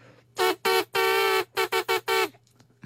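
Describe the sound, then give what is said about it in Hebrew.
A voice mimics car horns honking, live on air in a Galei Tzahal radio studio, with seven loud blasts: two short honks, one long drawn-out blare, then four quick beeps in a row, with no other talking. “אבל uh, סופרים של מכוניות.”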